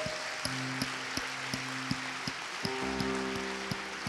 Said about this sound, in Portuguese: Vamos dar um aplauso ao Senhor, a Ele a glória.